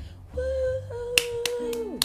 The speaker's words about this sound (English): That was the applause sound.